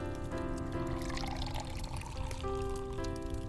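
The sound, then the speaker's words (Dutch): Lemonade is poured steadily into a glass, a continuous gurgling trickle with a faint ringing tone shifting as the glass fills, no voices present. “Mag ik een glas limonade, alstublieft?”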